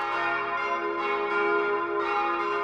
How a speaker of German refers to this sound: Aus dem hochaufragenden und mit einem Spitzhell bekrönten Kirchturm ertönt seit 1957 das in Heidelberg gegossene Glockenquartett in den Tönen F, Ass, B und C möge es das Pfarrjubiläum mit seinem festlichen Klang gebührend begleiten.